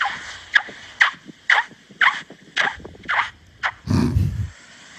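Squeaky sand on a beach crunches underfoot in a steady walking rhythm, recorded with a phone held to the foot, about nine sharp footsteps, with a louder, rougher scuff near the end.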